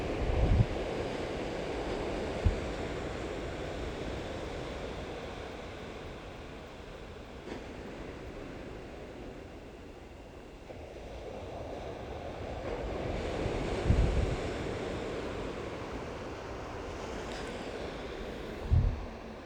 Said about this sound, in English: It's beautiful here. It's the evening, beautiful sunset. Oh, the sound of the waves and the cicadas just make it beautiful.